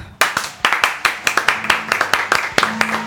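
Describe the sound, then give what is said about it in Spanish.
An audience claps loudly to welcome the first acoustic act of the night, a dense burst of many hands at once with sharp, rapid overlapping strikes. It starts suddenly after a brief quiet moment and keeps going steadily throughout. “Así que vamos a recibir con un fuerte aplauso al, primer acústico de esta noche.”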